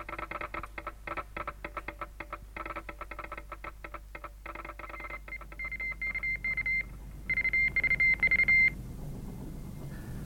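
Rapid, irregular radio telegraph beeps tap out a message in short and long tones, followed by a few steadier, louder beeps near the end, with no voices.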